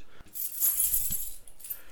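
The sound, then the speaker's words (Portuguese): A bunch of keys jangles for about two seconds, bright metallic clinks and rattles shaking continuously with a few louder jingles, no voices present. “Muito bem, então se me dão a honra de ser eu a fechar aqui, bom, lá vou eu aqui com as chaves, trancar aqui o corte lateral para abrirmos depois na madrugada de domingo.”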